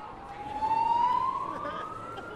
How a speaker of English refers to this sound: So until they can get the fire alarm off, there's going to be a lot of uh, background noise, a lot of siren sounds.